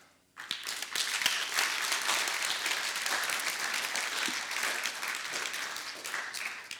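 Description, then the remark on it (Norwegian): A church audience breaks into sustained applause for the worship singers, many hands clapping in a dense, steady wash that starts abruptly and holds at an even loudness throughout, with no voices standing out. “Gi det en applaus.”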